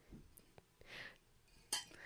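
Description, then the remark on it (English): Glasses clink together in a toast, a bright, ringing chime near the end after a few soft taps and rustles, fairly loud. “I was, gonna, I was just gonna say these glasses sound so nice. I really like it when they clink.”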